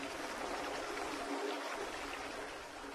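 A creek, Thorn Creek, flows beneath a bridge with a steady, continuous rushing, hissing wash of water, even in volume throughout, with no voices present.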